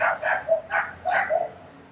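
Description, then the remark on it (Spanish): Dogs bark in a rapid, overlapping string of about five sharp, fairly loud barks over two seconds, with no one talking. “Voy a viajar en el tiempo para evitar que nazcan esos perritos.”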